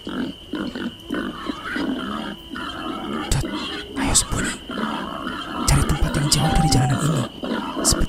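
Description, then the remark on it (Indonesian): Several wild boars, more than one, grunt and snort near a resting spot in low, rough bursts that overlap irregularly, growing louder and busier toward the end over a steady rustling background. “Ucapku gugup setelah mengetahui kalau suara celeng ini yang kudengar sepertinya lebih dari satu.”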